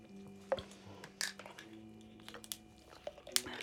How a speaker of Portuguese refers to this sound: Peço desculpa. Vou beber um bocado de água.